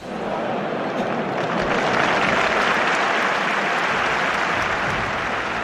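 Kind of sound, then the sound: crowd, audience ovation applause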